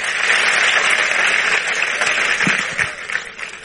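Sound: audience applauding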